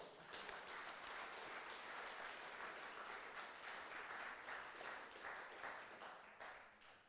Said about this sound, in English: Can I hear you say amen? Yeah, you can put your hands together unto the Lord.